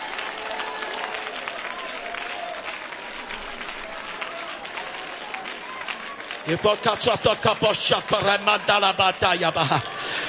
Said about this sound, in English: Follow your hand clap.